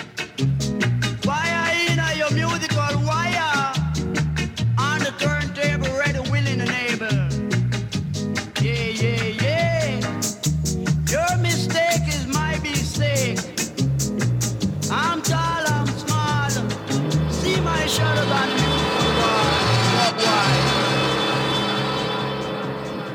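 A loud, steady sampled reggae track from 1972 plays throughout, with a sung melodic vocal over a bouncing bass and rhythmic offbeat backing, the mix thickening toward the end.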